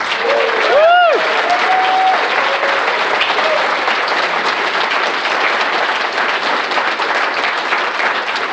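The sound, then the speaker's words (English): A crowd breaks into sustained applause, dense and steady for about eight seconds, with a brief whoop or whistle near the start. No one speaks over it. “They've all put bits in, so a big round of applause for them, please.”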